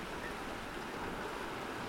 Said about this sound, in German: Wie man vielleicht hört, sitze ich gerade, ähm, ja, direkt am Meer.